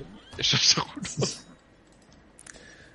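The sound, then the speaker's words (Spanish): A human voice imitates three squawking aarakocra bird-folk lookouts, letting out a loud, rapid run of harsh, strained cries before dropping to near silence, with a faint click near the end. “Escucháis graznidos, escucháis como quejidos.”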